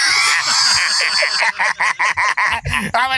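Fowl honk and squawk loudly, a continuous noisy chorus that breaks into a quick series of sharp, repeated honks toward the end.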